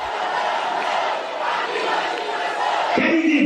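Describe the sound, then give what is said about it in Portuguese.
Dozens of protesters shout and yell together in a loud, continuous roar of overlapping voices during a tumultuous São Paulo state Assembly session on a bill to privatize the state sanitation company, with one voice rising above the din near the end. “Durante a sessão, houve tumulto no local.”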